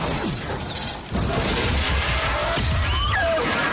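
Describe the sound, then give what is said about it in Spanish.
A giant crossbow (ballista), fired by Bron at the dragon Drogon, launches a bolt with a heavy mechanical thump and rush of air, loud, followed by dense, roaring battle noise with crashing and a shrill cry rising through it. “Bron dispara.”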